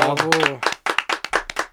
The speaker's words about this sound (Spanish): Qué bonito, bravo, un aplauso.